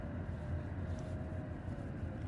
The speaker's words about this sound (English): the sound of roaring engines.